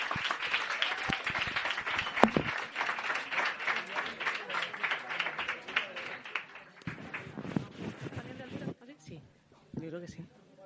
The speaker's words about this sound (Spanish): Un aplauso, por favor, que si no, no sale.